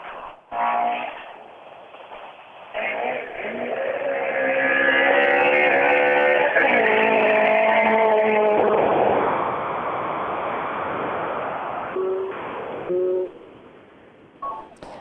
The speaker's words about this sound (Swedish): Ja, härligt att höra rallybilar också.